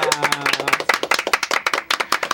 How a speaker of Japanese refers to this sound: はい拍手お願いします